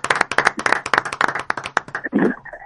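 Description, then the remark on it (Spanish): Applause from a small group welcoming a guest on the show Encopados: quick, uneven, crisp hand claps layered over each other, fairly loud, with a brief voiced cheer near the end as the clapping thins out. “Un aplauso, vamos a un aplauso.”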